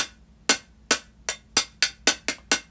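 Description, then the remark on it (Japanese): The top of a tea canister is tapped repeatedly, about eight or nine crisp metallic knocks in a quick, slightly uneven rhythm, clear with no talking. “でもう一個は前回使った茶筒茶筒お茶の筒頭が”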